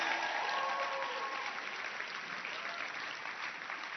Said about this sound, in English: Yes, so hand over the microphone to him before you go down. Clap your hands and let's welcome him.